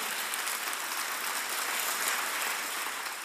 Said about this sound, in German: Vielleicht geben wir Jesus mal einen Applaus dafür.